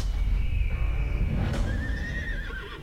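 A horse neighs loudly, a long quavering whinny lasting about three seconds that breaks briefly midway and then carries on over a low, steady rumble.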